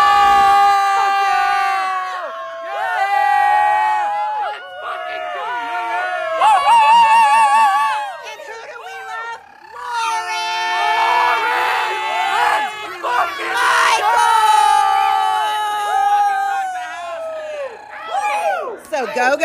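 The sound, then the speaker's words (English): A packed concert crowd at Bottom of the Hill in San Francisco, California cheers and yells after a rock show, many voices shouting and whooping over one another in a loud, sustained roar that swells and dips for about twenty seconds. “and we just fucking rocked the house down at bottom of the hill in San Francisco, California. Listen to this fucking crowd.”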